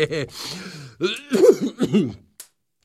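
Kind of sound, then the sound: human body sound, persistent cough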